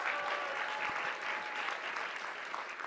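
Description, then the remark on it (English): An audience at Possible breaks into a sustained round of applause, dense steady clapping from many hands at an even loudness for a few seconds, with no voices standing out. “Okay, let's have a round of applause.”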